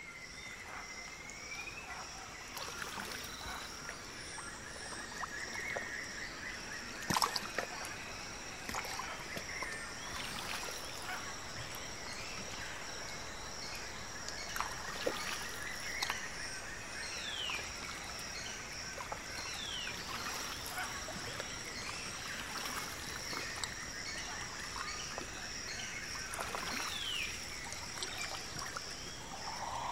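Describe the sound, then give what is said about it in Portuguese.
Canoe paddles dip and glide through the water of the Tapajós River near Alter do Chão, slowly entering a partially submerged forest, with soft, intermittent splashes and trickles, set against a steady chorus of insects and scattered bird chirps from the surrounding forest. “Tudo começa com um passeio de canoa pelo Rio Tapajós, ouvindo os remos deslizando sobre as águas”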